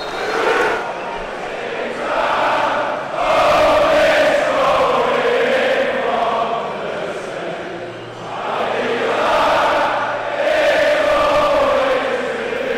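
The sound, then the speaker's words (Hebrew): A large crowd of English football fans in Jerusalem chants loudly and continuously at the kick-off whistle of a match, voices rising and swelling together in a sustained, rhythmic roar with no break for the whole stretch. “אז למרות ההרכבים הרב-לאומיים אה, והליהוקים המקומיים, עכשיו עם שריקת הפתיחה נשמע בחוצות ירושלים הסאונד שאין לטעות בו של קהל כדורגל אנגלי.”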